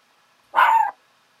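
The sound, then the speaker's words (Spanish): A single short, sharp bark from a small female pet dog, clear, standing alone against a quiet background with no talking. “Es que aquí su perrita está ladrando por razones que no conozco.”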